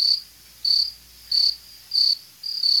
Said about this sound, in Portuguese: Bota o grilo, bota agora, o grilo, bota o grilo.